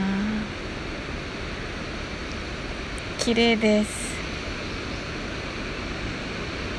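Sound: ocean waves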